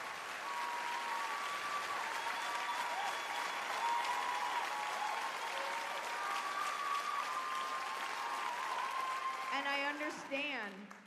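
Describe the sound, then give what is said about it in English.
A crowd of women and men applauds and cheers loudly and steadily for about ten seconds, with whoops and shouts over dense clapping, before a voice briefly cuts in as it starts to die down. “Women cheer for that, most men do.”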